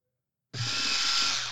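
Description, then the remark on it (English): After a brief silence, a Hitachi electric power drill suddenly starts and runs steadily at full speed with a loud, high-pitched whine over a low motor hum, with no one talking. “Is that your Hitachi? Yeah, I mean your your electric yeah. drill.”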